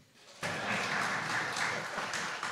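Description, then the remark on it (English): A worship audience breaks into applause for their song leader on his first day leading them in song, after a brief hush, the many hands blending into a dense, steady clatter that holds at an even, fairly loud level for a couple of seconds. “Pause for applause”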